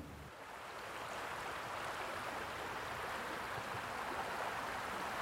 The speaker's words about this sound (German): Hier knappt sich jeder so einen Stein, setzt sich in den Bach. Und du hast dann da wirklich so den Effekt, dieses Rauschen vom Wasser, das verschluckt ja alle Geräusche, die so außenrum sind.